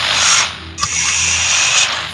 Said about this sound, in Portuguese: Tá ok você manipula os, os botões, aqueles negócios de girar para sintonizar o radinho.